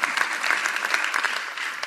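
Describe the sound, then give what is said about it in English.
Steady applause from an audience fills the whole two seconds, a dense, even patter of many hands clapping at moderate loudness with no clear pauses. “You ought to applaud to that.”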